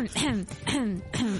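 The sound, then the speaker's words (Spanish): Three loud, rough coughs in a row, each a short breathy burst with a voiced, falling tail, spaced about half a second apart. “Ay, qué tos más tonta me ha entrado, por Dios.”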